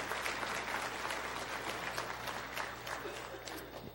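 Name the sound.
audience clapping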